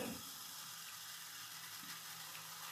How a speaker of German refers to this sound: Das, was ihr jetzt rauschen hört, ist nicht das Mikro, das ist der Strose. Der gießt sich nämlich gerade Cola.